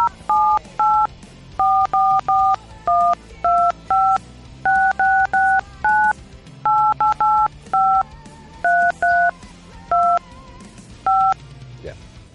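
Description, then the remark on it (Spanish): A long string of telephone keypad dialing tones as an international call to Spain is dialed, about twenty short beeps pressed in quick irregular bursts, each a clear electronic dual-pitched tone over a faint low background hum. “Vamos a llamar a …, vamos a hacer una llamada internacional”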